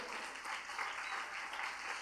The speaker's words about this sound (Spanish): Parece que pueden darle un aplauso en este momento. Dele la gloria a Dios.